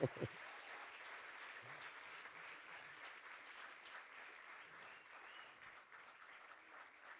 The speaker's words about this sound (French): On a un problème de pédale. Ça vous donne l'occasion d'applaudir